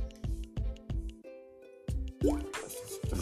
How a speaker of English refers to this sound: My bad. to take a little sip of water. You know what I'm saying? When you smoking, smoking some loud, you know what I'm saying? Throat get a little dry and then you talking and shit.